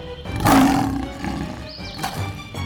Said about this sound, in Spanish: El león soltó un fuerte rugido. En verdad estaba furioso.